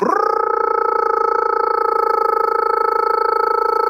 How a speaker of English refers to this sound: When the toad itself sings, it'll go